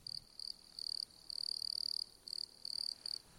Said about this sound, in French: Prière donc de ne pas confondre ces grillons des bois